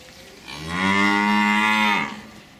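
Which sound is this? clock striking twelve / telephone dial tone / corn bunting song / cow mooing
cow mooing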